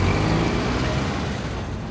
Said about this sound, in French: Et il y a, comme vous l'entendez, beaucoup de circulation.